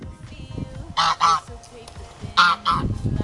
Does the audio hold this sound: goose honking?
yes